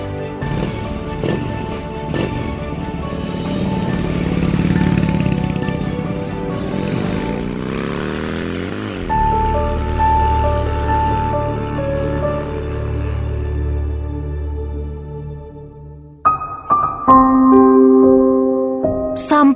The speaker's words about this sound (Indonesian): di mana motor Aldo meninggalkan rumahnya, Anita masih kebingungan.